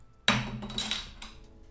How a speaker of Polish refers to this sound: A, czekaj, bo otworzyłem tak cicho, że nie było słychać, że otworzyłem, więc teraz rzucę sobie kapsel.